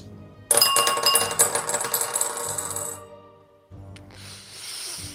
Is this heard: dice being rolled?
yes